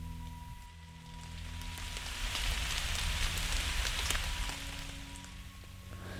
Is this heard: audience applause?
no